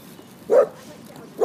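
A dog named Lucky, out on a walk in a park, gives two short, mid-pitched barks about a second apart at other dogs. Each bark is clear and fairly loud over a low background hiss.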